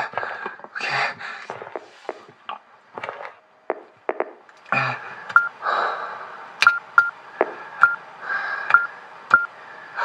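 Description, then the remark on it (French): A run of short electronic keypad beeps, about seven crisp tones at a steady pace, punching in a door code on the door of Andrea's office over a faint background hiss, with some muffled rustling and clatter before them. “Je rentre le code.”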